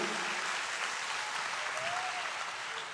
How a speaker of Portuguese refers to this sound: Quem pode aplaudir o Espírito Santo, diga glória a Deus, aplauda a Ele.